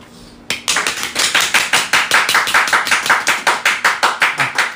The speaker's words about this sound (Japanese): たくさんの拍手ありがとうございますありがとうございます